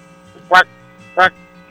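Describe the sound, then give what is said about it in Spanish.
A voice imitates a frog's croak twice, two short, loud, raspy vocal bursts separated by a brief pause, with a faint steady hum underneath. “Ahora dime cómo le hace una rana.”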